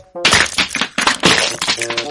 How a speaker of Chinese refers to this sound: 哎呀，哪儿来的石头，把我的鸡蛋都打碎了？